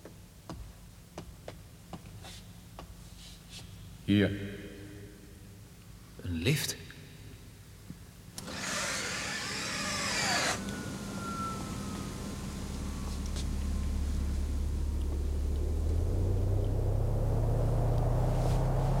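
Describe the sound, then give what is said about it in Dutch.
Two sharp mechanical clanks, a brief whooshing hiss, then a deep motor rumble that swells steadily and keeps building as a special, non-public elevator descends very fast and very deep to the lowest floor of a building, deep underground. Loud. “Een speciale die heel snel heel diep gaat.”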